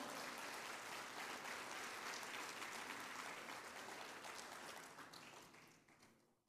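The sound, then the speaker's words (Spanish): A church audience applauds for the Lord in a dense, steady wash of many hands clapping, holding strong for several seconds before tapering off and fading out near the end. “La iglesia le regala palmas al Señor.”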